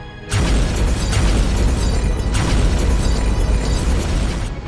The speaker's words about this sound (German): Erleben Sie Explosionen